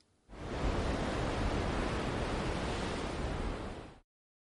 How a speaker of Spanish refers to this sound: ¿Esperabas escuchar el sonido del mar? Escucha esta historia y descubre que el mar no suena igual para todos.